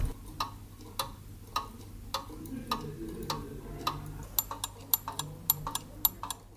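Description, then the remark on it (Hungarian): Many mechanical clocks hanging on the walls of a watch shop tick together in a steady, overlapping rhythm, sharp clicks layered over a low background hum. “hogy bejövünk természetesen órásbolthoz híven, mindenhol órák vannak a falon, itt nem lehet eltéveszteni az időt, igaz?”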